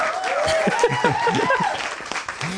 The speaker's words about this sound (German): ich distanziere mich von diesem künstlichen Applaus. Wir haben kein Live-Studio hier, äh, kein Live-Audience hier im Studio.